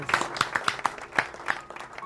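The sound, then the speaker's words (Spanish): Brief studio applause made of sharp, irregular claps that rise and fall in loudness over a couple of seconds, with no voices over them. “Aplauso para Ana.”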